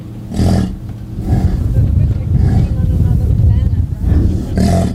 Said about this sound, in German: Ein offensichtlich erregter Büffel schnaubt und grunzt. Er interessiert sich zweifellos für eine Büffelkuh.